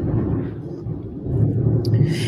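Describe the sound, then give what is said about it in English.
A low, continuous rumble of thunder rolls steadily in the background as a storm approaches, deep and sustained throughout, with a faint higher hiss rising near the end. “yeah, I kind of like the thunder in the background of this story.”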